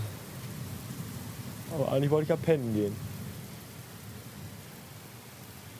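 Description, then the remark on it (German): Steady rain hisses throughout while low thunder rumbles in the background of a storm with constant lightning, and a man speaks briefly in the middle of the storm. “Es ist nur noch hell am Himmel. Die ganze Zeit. Es blitzt in einer einzigen Tour.”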